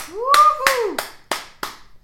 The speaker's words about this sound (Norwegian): Applaus.